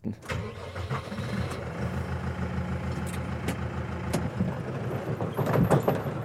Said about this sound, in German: Das Rascheln der Tannenzweige, wenn ein Baum auf die Erde fällt, das Brummen des Traktormotors oder eben das Geräusch der Säge, mit der man einen Baum fällt.